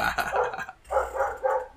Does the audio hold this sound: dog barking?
yes